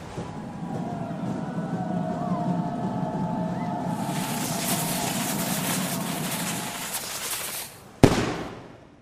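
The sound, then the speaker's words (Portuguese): Over a low rumbling hum, a small lit fuse hisses and sizzles steadily for several seconds, then a single loud explosion bursts and quickly fades. “O rei, ele, ele acende um pequeno pavio.”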